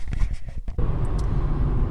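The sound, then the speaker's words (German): Steady low road rumble and engine drone from inside a moving car driving toward the Mönchsfeld prefab housing estate of Roggendorf-Tenhofen, filling the cabin continuously after a brief muffled shuffle at the start. “Äh, wir sitzen nämlich jetzt gerade im Auto, äh, sind losgefahren Richtung im Mönchsfeld.”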